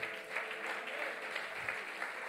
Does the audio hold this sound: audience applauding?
yes